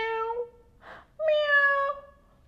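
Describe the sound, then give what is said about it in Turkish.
A cat stuck inside a cupboard meows twice, clear: a descending mew, a brief soft rustle, then a longer, louder meow that holds and fades. No one speaks. “Sanki bir yerde kedi miyavlıyor.”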